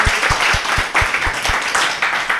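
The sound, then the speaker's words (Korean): A crowd applauds steadily, a dense wash of many hands clapping at once, with a faint regular low thumping beneath it. No one speaks over the applause. “아, 박수 한번 주세요.”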